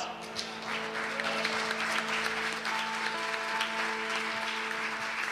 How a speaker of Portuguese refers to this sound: Aplauda Jesus.